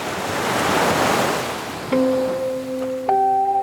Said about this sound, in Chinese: 他们正在被卷入一股又一股的商业科技浪潮之中，巨大的浪声淹没了他们的声音，飞腾的浪花模糊了他们的面孔。